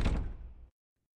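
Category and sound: household object, doors opening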